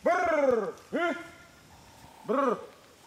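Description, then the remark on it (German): A man's voice gives three resonant, trilled calls in a brrr-hm pattern, the first long, the second brief, the third after a pause, fairly loud with no other talk: a special call used by the Yao people of northern Mozambique to get honeyguide birds to cooperate. “Die Yao hingegen, ein Volk, das in Nordmosambik heimisch ist, nutzen spezielle Rufe, um die Honiganzeiger zur Mitarbeit zu bewegen.”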